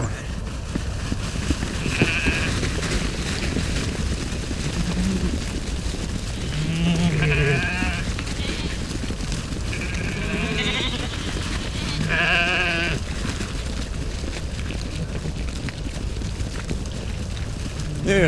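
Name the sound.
sheep bleating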